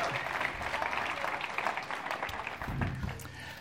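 Sustained audience applause for a team member who made the sound effects, a dense steady wash of many hands clapping for a few seconds, fairly even in loudness with faint murmuring voices mixed in near the end.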